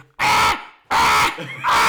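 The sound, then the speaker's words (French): A voice imitates an electric alarm clock with three loud, harsh, nasal buzzes in a steady rhythm, each about a third of a second long with short gaps between. “tombe dans les pommes et le remplace par un réveil électrique qui, plot twist, contient le même type, mais qui fait plus coucou, qui fait.”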